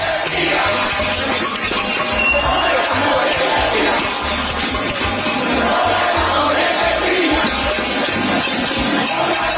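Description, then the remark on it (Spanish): A large crowd of residents protesting power cuts shouts and yells continuously in the street in Pinar del Río, a loud, dense roar of many voices with scattered cries rising above it and occasional bangs, steady throughout. “Vecinos de Pinar del Río salieron a la calle protestando por los cortes de luz, por la, el desabastecimiento que hay en la isla.”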